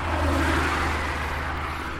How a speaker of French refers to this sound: Bon, là, j'ai repris la voiture pour les routes de Parthenay.